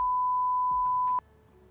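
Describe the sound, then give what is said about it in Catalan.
A single steady censor bleep, a pure high tone held for just over a second before cutting off abruptly, leaving only faint room noise behind. “Esto es un pip que flipa.”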